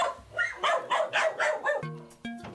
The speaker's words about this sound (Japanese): サロマ町の牧場で犬が多頭飼育崩壊になっていた問題今日午前9時から動物愛護団体や獣医師らのチームおよそ50人が救出に乗り出しました私たちを警戒してでしょうかこちらに向かって吠えています